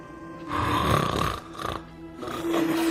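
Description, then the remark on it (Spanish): A person snoring loudly up close, two long rasping inhalations with a brief quieter pause between them, no talking; part of a trailer for a Spanish drama film. “Eso es un ronquido.”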